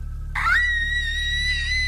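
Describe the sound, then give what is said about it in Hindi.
A sudden, shrill scream of fright from girls bursts in after a brief pause and holds at a steady high pitch to the end, loud over a low, constant rumble, as they see a driver sink his fangs into a man's neck. “ये देखते ही लड़कियों की चीख निकल गई”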